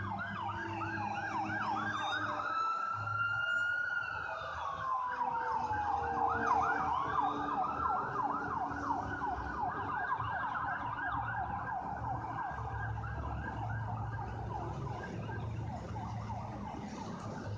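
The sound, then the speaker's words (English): An ambulance siren wails steadily with rapid rising-and-falling yelp patterns, loud at first, its pitch dipping as it passes, with low road rumble underneath and no talking. “Yeah, sorry, ambulance is passing by.”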